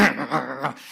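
A pet dog in the room makes a brief, drawn-out vocal noise, wavering in pitch for under a second before trailing off into quiet room sound.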